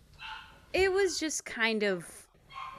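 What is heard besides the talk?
dogs barking and yipping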